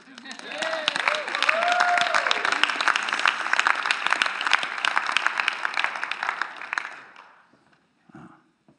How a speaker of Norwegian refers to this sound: Skal vi gi en klapp for oss sjøl?